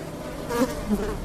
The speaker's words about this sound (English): The sound of flies buzzing came from everywhere, but the kitchen was the worst.